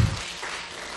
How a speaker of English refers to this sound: Come on, can we give God a great round of applause for His word?